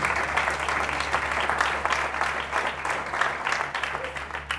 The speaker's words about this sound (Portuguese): pode aplaudir o Senhor, querido. Vocês estão tímidos?